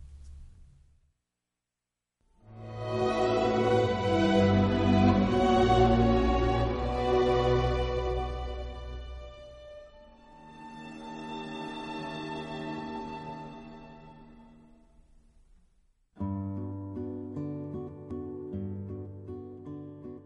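A gentle lullaby from a film soundtrack, with warm sustained melodic tones that swell, soften into a quieter passage, then return fuller in a new section with steady, held notes.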